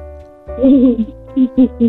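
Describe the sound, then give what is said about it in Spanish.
A person's voice imitates a gorilla with one drawn-out hooting call followed by three short, punchy hoots in quick succession, fairly loud. “Ahora hazle el ruido de un gorila.”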